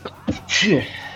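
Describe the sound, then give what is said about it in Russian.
A single sharp sneeze bursts out, a short voiced intake followed by a hissy, explosive release that quickly fades. “Будь здоров.”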